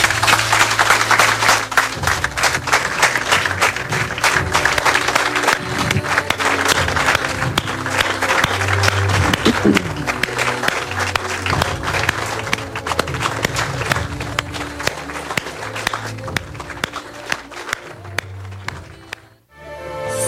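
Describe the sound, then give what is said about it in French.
A crowd applauds steadily and loudly for nearly twenty seconds as a couple is welcomed to the front, dense clapping over the theme music of the show Les Faits maudits with a low melodic line, dipping briefly near the end before picking up again. “Mais là, je vous demande d'accueillir à main levée mon ami”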